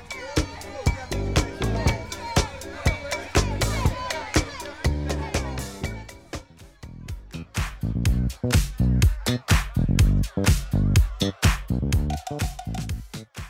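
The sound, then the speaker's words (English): Party crowd chatter and shouts run underneath the stripped-back chorus of a song, a driving disco-funk groove with steady punchy drums and bass up front and the voices blended in as a lively background murmur. “what you actually get is a stripped back chorus, this disco funk situation with crowd sounds in the background”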